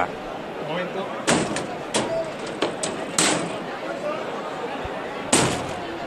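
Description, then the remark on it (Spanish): A heavy church door slams shut with a sharp bang after a procession's float has entered, followed by several knocks and rattling thuds over the next few seconds, with a murmur of voices in the background. “Qué bonito ha sido la entrada del misterio del paso de palio y escuchamos cómo grita la bisagra vamos a, escuchar el portazo también.”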